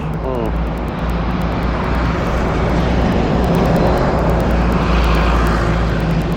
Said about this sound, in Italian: Ecco l'autobus.